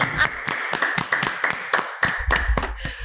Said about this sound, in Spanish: Y, un aplauso, por favor. venga.